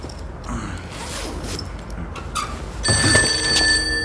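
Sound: telephone ringing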